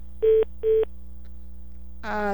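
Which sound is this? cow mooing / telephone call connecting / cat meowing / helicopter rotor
telephone call connecting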